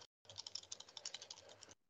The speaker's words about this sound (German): ich würde das jetzt einfach nur mal zerknüllen, sodass man es nicht lesen kann. Und wenn hier irgendwie in meiner Hand